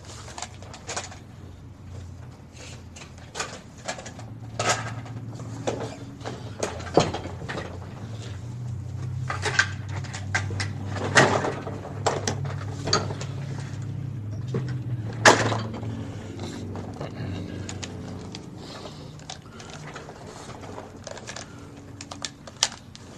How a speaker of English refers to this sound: Sorry about that. I got my mic cord wrapped around my chair.